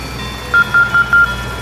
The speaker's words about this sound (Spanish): Volvo llegó a la zona rural donde yacía la fatídica inspección un androide tipo 4 se acercó a él pronunciando unos pitidos que solo Volvo comprendía.